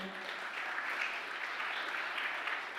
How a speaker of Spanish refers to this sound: del un aplauso fuerte al Señor.